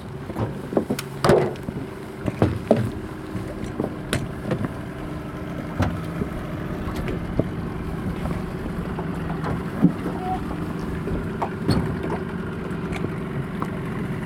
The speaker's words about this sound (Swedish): Jag tror fan vi behåller motorn på tomgång.